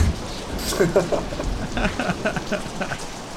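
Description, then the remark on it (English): Steady, dense pouring rain hisses throughout, with voices talking and murmuring over the downpour. “Ah, uh, it starts pouring.”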